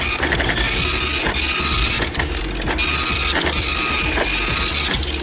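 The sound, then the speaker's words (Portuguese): A dot matrix printer prints with a loud, continuous mechanical rasp, its head buzzing and ratcheting across the page in repeated passes with brief pauses between lines, with no talking. “Naquela época só existia aquelas impressoras matricial.”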